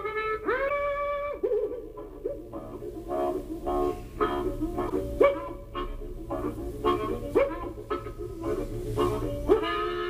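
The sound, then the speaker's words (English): Imitated bloodhound baying: a drawn-out, sliding howl opens, followed by a steady run of short, tonal barks and yelps repeating for several seconds, fairly loud, with no talking. “Does that sound like a bloodhound”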